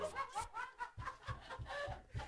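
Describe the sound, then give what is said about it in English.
An agitated Canada goose honks in a rapid run of short, harsh, nasal blasts, fairly loud, with a steady, insistent rhythm, as it swings at a man. “Oh, you got a mad little goose there.”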